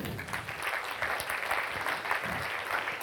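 An audience applauds the moderator steadily, a dense wash of many hands clapping at an even level throughout with no pauses and no voices standing out.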